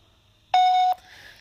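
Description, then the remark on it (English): A single loud, steady electronic voicemail beep on a phone call, lasting under half a second, after the recorded greeting as the callers go to leave a voice message, followed by faint line hiss with no one speaking. “We'll leave him a voice message.”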